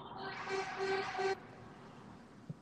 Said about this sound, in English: I'll even honk my horn.